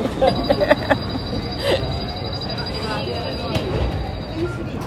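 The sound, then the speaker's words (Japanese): An airport shuttle train at Singapore's airport carries passengers between terminals, arriving at Terminal 1, with a steady low rumble and a thin, high electric whine held throughout, with a few sharp clicks and faint voices mixed in. “なんか何これ謎の乗り物に何ですかこれバス乗っちゃっていいのこれに”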